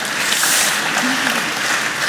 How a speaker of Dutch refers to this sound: Zelfs een applaus. Wauw, wauw.